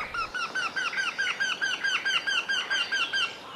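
Eurasian wryneck calls ring out in a steady run of repeated, slightly nasal piping notes from a male and a female bird overlapping, clear with no talking.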